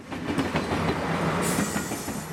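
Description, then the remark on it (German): A train rumbles past, steady and loud, with rhythmic clattering of wheels and a high metallic whine rising in the second half, set against the busy din of San Pietro railway station near the Vatican in Rome, with commuters and tourists. “Es ist laut und trubelig hier am Bahnhof San Pietro nahe dem Vatikan.”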